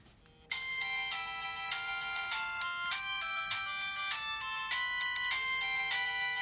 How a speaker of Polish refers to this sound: Mniej więcej tak brzmiały dzwonki polifoniczne.